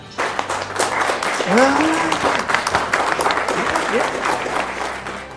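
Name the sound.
applause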